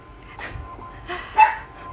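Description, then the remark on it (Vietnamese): The household's dog barks a few times downstairs, barking at someone, the short muffled yaps spaced irregularly. “em chó nhà mình ở dưới nhà lại bắt đầu đang sủa ai ấy”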